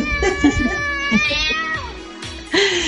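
A cat meows insistently, a run of drawn-out, wavering cries with a sharper rising yowl near the end, sounding alone without any talking.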